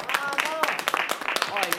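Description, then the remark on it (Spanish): A crowd claps in a brisk, uneven burst of applause for under two seconds for a young man who has just become a man, with shouting voices and cheers mixed in over the sharp, crackling hand claps. “A ver si le damos a este joven que acaba de hacerse hombre un fuerte aplauso.”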